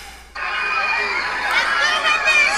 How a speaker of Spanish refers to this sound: Oye a la gente en la calle, escucha. Entre gritos y porras, cientos de personas celebraron el primer lugar de Wendy Guevara en la Casa de los Famosos.